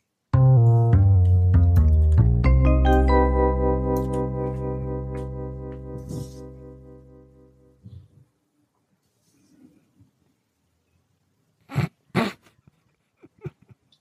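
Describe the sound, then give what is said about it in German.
A short musical jingle with a dense, buzzy, distorted harmonic tone hits loudly and fades out over several seconds, followed by near silence and a couple of brief bumps near the end. “Ja, mach erstmal einen Bumper, den wir nicht hören.”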